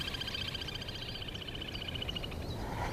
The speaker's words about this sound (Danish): der kunne man høre den lille lapdykker.